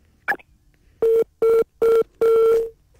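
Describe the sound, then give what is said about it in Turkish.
A short click, then four loud, steady electronic telephone tones pulsing in an even on-off rhythm, the last held a little longer, the sound of a phone line dropping out. “Evet telefon hattımız koptu.”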